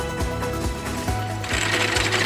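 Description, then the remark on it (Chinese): Two Shire horses pull a century-old antique lawn mower cutting grass on the lawn of King's College, Cambridge University, England: a loud, continuous mechanical clatter and whir with regular rhythmic knocks, growing brighter and more rattly toward the end. No voices. “原来啊，校园内就出现了这样两只马拉着古董割草机割草的画面， 而这其实是学校的实验计划，想要来研究现代跟传统的割草方式对生物多样性有什么样的影响。”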